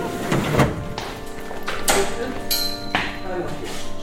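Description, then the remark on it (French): A heavy storage drawer in a stone-sample library, a drawer holding stone samples from Notre-Dame, slides open with a scraping rumble and a few sharp knocks and clunks over about four seconds; faint voices murmur in the background. “Alors les tiroirs de Notre-Dame,”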